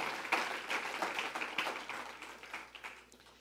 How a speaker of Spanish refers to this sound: Demos un fuerte aplauso a nuestro invitado especial, que es el Señor. Él es el invitado especial en esta tarde.